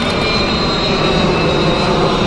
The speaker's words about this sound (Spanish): Ahí está pasando un avión. Qué envidia le tengo al que va ahí.